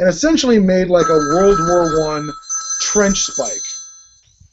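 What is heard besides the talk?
phone ringing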